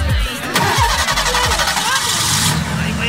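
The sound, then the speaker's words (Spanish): A car engine cranks with a few quick, chugging turns, then catches and keeps running with a loud, steady rumble. “¿Ese carro qué?”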